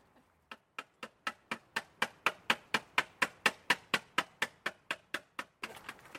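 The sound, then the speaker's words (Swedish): Outside a motorhome, a tin of Swedish fermented herring (surströmming) is worked open with a steady run of about twenty sharp metallic clicks, swelling louder mid-way, then a brief hiss of rough noise at the end. “Det är lite svårt att öppna surströmmingsburken men vi gör så gott vi kan.”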